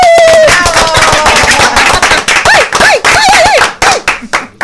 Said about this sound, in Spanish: Bueno, señores, eh, ya lo dijo don productor, tenemos hoy el lujazo de tener aquí en el estudio a Carlos Alfredo Fatule. Muchas eh, gracias. Un aplauso.